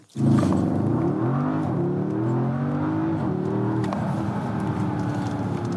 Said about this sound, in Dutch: met haptic touch en V8 geluid. Leuk.